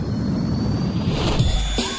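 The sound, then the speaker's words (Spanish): Spacecraft engines roar loudly and continuously at takeoff, a dense low rumble topped by a thin high whine that swells and shifts near the end. No voices. “Motores. Con niveles de energía óptimos. Iniciamos despegue.”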